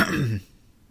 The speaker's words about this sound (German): sitzt da, guckt ihn an und räuspert sich.